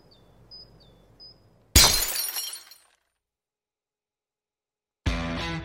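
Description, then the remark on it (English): A glass bottle being cut in half cracks apart with a sudden loud snap and a brief glassy ringing tail, preceded by faint chirping, followed by silence and then another burst of bright noise. “You're telling me that bottle is cut in half?”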